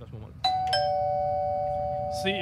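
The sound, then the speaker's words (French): A doorbell, rung by a 75-year-old man delivering meals to people in need, chimes two tones, a bright strike followed quickly by a second, with a long ringing decay that hangs in the air. Low background murmur underneath and a faint rustle at the end. “Le son de cette sonnette vous semble probablement bien banal.”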